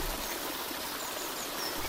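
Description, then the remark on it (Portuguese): Water flows gently along a levada irrigation channel on the island of Madeira at the end of summer, carrying leaves of native trees such as oaks and plane trees; a steady, soft babbling wash that stays even and unbroken throughout, with no voices. “A levada de fim de verão vai preguiçosa, embalando folhas de espécies vegetais indígenas, como os carvalhos ou os plátanos que se distribuem na margem do trilho.”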